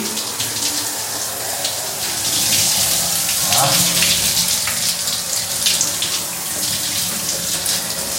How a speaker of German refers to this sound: Ich befinde mich jetzt also unter der Dusche. Also noch nicht, aber die Brause habe ich in der Hand. Jetzt geht es also los mit dem Duschen. Ja? Erstmal atmen. Wir beginnen jetzt erstmal mit dem gesamten Abduschen.